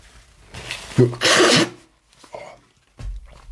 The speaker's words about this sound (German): So, ich muss hin und wieder mal Nase putzen.